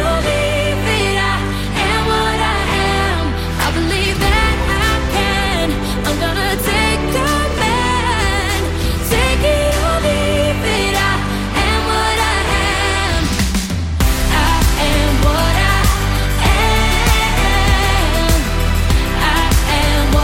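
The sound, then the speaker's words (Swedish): A loud, full-band pop song, Malta's entry in the evening's Eurovision semifinal, sung by a female singer, plays continuously with a steady beat, deep bass and melodic vocal lines layered over synths, the arrangement building slightly toward the end. “Låten hon ska framföra under kvällens semifinal heter … och den låter så här.”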